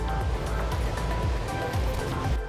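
Ocean waves wash onto the beach at Pantai Sembuan in a steady, continuous roar of surf, loud, with no clear gaps between breakers and no voices.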